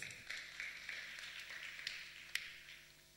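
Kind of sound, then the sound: crowd, applause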